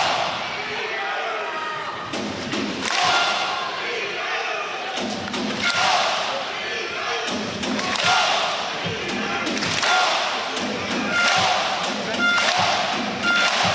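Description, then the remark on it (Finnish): An ice hockey arena crowd performs an Icelandic-style Viking thunder clap victory celebration led by the team captain: loud, synchronized claps with a deep shouted grunt, repeated at steady intervals over a continuous roar of crowd noise. “Otetaan tällainen Islantihenkinen voitonjuhla.”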